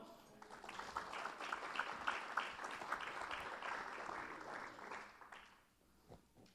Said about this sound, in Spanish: ¿Está aquí hermano? De un fuerte aplauso al Señor.